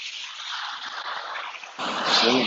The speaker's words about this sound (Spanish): nos va a acompañar el sonido del mar.